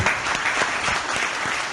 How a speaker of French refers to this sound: Merci, je crois qu'on peut applaudir nos, nos quatre intervenants.